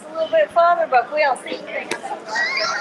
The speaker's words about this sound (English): you like the background, the ambience of all the people in the terminal